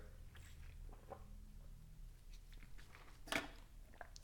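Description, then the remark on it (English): Quiet sipping and swallowing of water, with small wet mouth clicks and one brief louder clunk near the end, no talking. “Let me have some water.”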